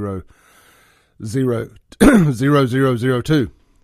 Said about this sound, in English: Let me do it one more time since I coughed.